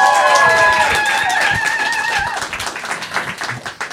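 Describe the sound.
Loud, steady crowd applause with dense clapping, mixed with cheering voices and a sustained whoop or whistle in the first half, then thinning slightly toward the end.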